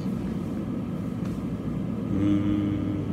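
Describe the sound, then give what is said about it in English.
An air conditioner runs in a big room with a loud, steady low droning rumble throughout, picking up a slightly higher-pitched whine toward the end, with no voices over it. “It's the air conditioner. You can hear the, the air, and it sounds loud to me.”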